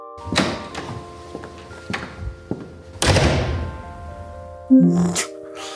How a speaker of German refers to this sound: Okay, und Türen knallen kannst du auch. Ist ein neues Feature oder was?